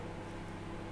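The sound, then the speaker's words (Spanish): A microwave oven hums steadily while heating tea, a low constant drone with a faint buzzing edge, fairly quiet and unbroken throughout with no voices over it. “perdón por el ruido del microondas.”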